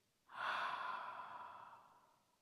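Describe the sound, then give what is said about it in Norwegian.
A single slow, breathy exhale through the mouth during a breathing exercise, after breathing in through the nose, starting abruptly and fading gradually over about two seconds. It is soft, with no talking. “Og ut gjennom munnen.”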